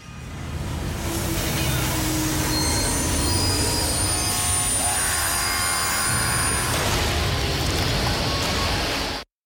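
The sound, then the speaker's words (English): Loud, sustained metallic squealing of train wheels grinding against rails, piercing high tones layered over a heavy rumbling roar for about nine seconds before cutting off abruptly. “Daily Train Wrecked brought to you by Wheat Pond also known as Eric forward slash on Twitter”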